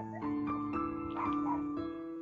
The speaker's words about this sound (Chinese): 谁家狗？不是我家的，是我家邻居的。